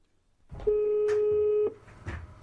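A single steady telephone tone sounds for about a second, loud and clean, with faint background clatter and handling noises around it and no voices, as a call is placed to the 113 emergency number.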